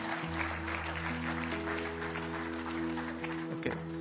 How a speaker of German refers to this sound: Ein Applaus für euch, ein kräftiger Applaus